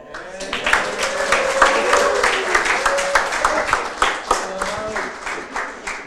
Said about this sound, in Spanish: Ah, un aplauso a mi Jesús.